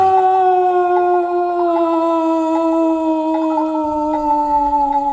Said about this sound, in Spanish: chacal aullaba a lo lejos.